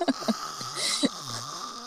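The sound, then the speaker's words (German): A voice does a short, sudden imitation of a loud snore: a harsh, breathy snort bursting out after a few small clicks, then trailing into a quieter, low hum. “was einfach die ganze Nacht sich durchzieht, sondern so alle 20 Minuten so ein Schnarchschuss.”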